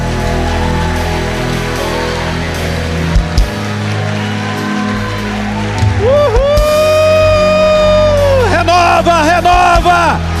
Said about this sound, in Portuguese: Uma salva de palmas ao nosso Deus.